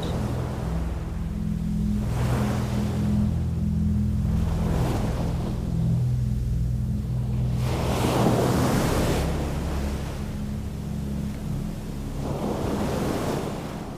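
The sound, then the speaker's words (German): Ocean waves break on a beach on a calm night under a full moon, in slow, repeated surges every few seconds, each swelling into a hissing wash over a constant low rumble. No voices are heard. “Du setzt deinen Weg fort, immer entlang des Meeres.”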